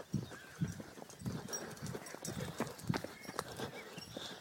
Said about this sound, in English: Yep, there goes that runner again, being dragged along by his dog.